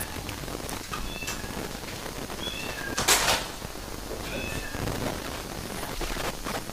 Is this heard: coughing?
no